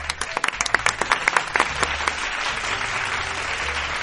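A round of applause from a group, with dense clapping that starts crisp and sharp, then blurs into a steady, softer patter as it tails off.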